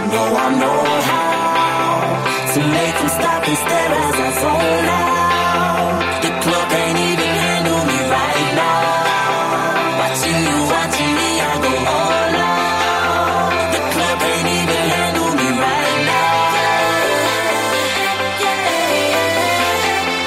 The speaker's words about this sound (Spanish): Y precisamente esta canción es la que te va a poner las pilas y va a hacer que te levantes.